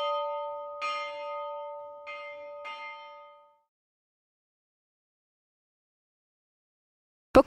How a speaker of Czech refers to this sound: 19 popravních dní a přesně vždycky v tu hodinu, kdy začínali ten který den popravy, tak začíná zvonit ten větší zvon, který se nazývá zámeček a potom počet těch popravených ten signalizuje vlastně údery do toho menšího zvonu, který se nazývá ležáky.